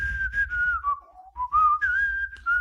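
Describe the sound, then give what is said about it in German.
A person whistles a short melodic tune from a film, the clear pitch sliding down and then back up across a few phrases, with a faint low rumble underneath and no talking. “Ich kann singen oder pfeifen.”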